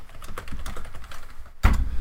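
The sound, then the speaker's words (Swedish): Rapid typing on a computer keyboard, a run of quick uneven key clicks, with a brief pause before a louder burst of keystrokes near the end. “Eh, tangentbordet någon centimeter till vänster och någon centimeter upp. Då hittar inte tangenterna ju.”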